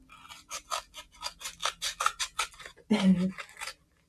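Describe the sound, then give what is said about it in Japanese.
Small portable scissors snip repeatedly through the packaging of a mailed Christmas gift in a quick, steady series of crisp cuts, followed by a louder rustling crunch of the material near the end. “ということで、早速、えー、ハサミを入れていきたいと思います。”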